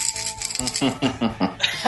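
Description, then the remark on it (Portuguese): Coins rattle inside a glass jar, kept for more than 20 years and filled with small coins, as it is shaken in quick, rhythmic bursts, producing bright metallic clinks and jingles repeating about every quarter second, fairly loud and with no talking. “eu ainda tenho um pote de vidro. Esse pote eu acho que tem o quê? Mais de 20 anos com a, todas as moedinhas que eu tinha na época.”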